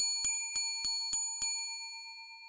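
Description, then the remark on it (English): A bright YouTube notification bell chime rings five quick, evenly spaced dings over a sustained shimmering tone that fades out afterward, clear with no voices. “And of course, we're on YouTube where you can like our videos, subscribe to our feed, and hit that notification bell.”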